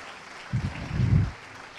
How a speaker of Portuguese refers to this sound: Quem quer isso? Aplaude forte, aplaude em nome de Jesus.